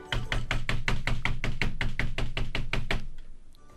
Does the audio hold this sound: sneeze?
no